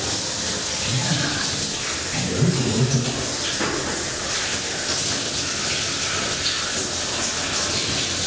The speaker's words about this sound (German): dass jeder Tropfen einen eigenen Ton hat und eine eigene Stärke. Hören Sie das? Wenn man die Tropfen langsamer abspülen würde, könnte man wirklich jeden Tropfen analysieren.